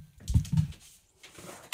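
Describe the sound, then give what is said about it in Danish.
A candy bag crinkles in a few irregular, rustling bursts, with a short pause near the middle and a final sharp crackle at the end. “Den her dame, hun sidder med sin, sit barn, og så sidder hun med den her slikpose, som lyder sådan her.”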